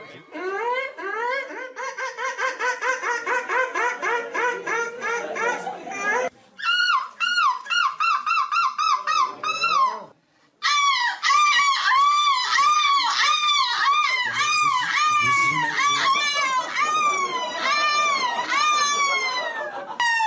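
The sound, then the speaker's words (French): Three loud bursts of contestants mimicking seagull cries at a 2023 seagull-imitation contest, each a rapid string of shrill, rising-and-falling squawks, separated by brief pauses. “Et le vainqueur est un jeune étudiant de 21 ans vous ai choisi les, les trois meilleurs cris de mouette de ce concours 2023.”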